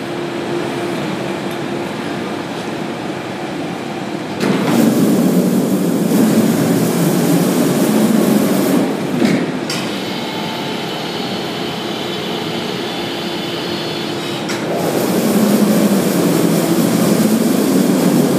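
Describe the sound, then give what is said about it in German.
A steady mechanical whir of a coffin on a lifting platform slowly rising in a crematorium in Dachsenhausen, then a louder roaring surge as the cremation oven door opens, the rumble shifting in stages with no voices. “Ein Sarg steht wie auf einer Art ja, Hebebühne, die jetzt langsam hochgefahren wird und wir dürfen tatsächlich an der Übergabe eines Sarges teilnehmen.”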